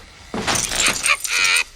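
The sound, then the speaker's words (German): Keys for a new door padlock are handed to two friends: a bright metallic jingle of keys rattling together for about a second, loud and clustered into a few quick shakes before stopping. “Bob hatte ein neues Vorhängeschloss für die Tür mitgebracht und händigte seinen beiden Freunden jeweils einen Schlüssel aus”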